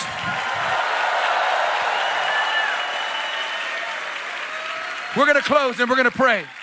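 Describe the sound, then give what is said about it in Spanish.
An audience shouts to God: a steady, loud roar of many voices and clapping, ending with a burst of several strong, pitched cries that rise and fall. “Give un grito a Dios.”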